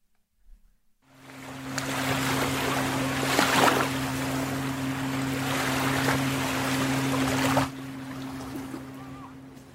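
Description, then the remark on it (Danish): Steady rushing wash of waves on the beach at Tankroen, fairly loud and continuous for several seconds, with a low droning hum underneath, then easing to a softer background hiss. No one speaks. “Og sådan en dag som i dag, hvor jeg går på stranden ved Tankroen, så kan jeg”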